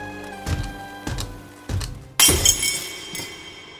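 Three dull knocks build up to a loud crash of glass shattering as the screen of a 14-inch television is broken with a Phillips screwdriver, followed by bright tinkling shards scattering and settling. No voices.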